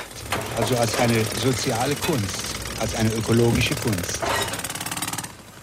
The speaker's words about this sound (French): Le bruit de travaux est trop important